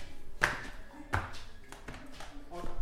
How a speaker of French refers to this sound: Alors là, on ne vous a pas menti, vous allez entendre le bruit des claquettes.